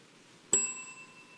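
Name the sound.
bell ringing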